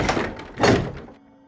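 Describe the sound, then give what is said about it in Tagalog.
A door swings shut with a solid wooden thunk, preceded by a brief rattle of the latch, then a low, quiet hum lingers as the room settles into stillness. An older sister closes the door after blowing out the candles on either side of a statue of Our Lady of Fatima. “Inipan ang matatabang kandilang nakatirik sa magkabilang gilid ng Our Lady of Fatima na poon at isinara ang pintuan.”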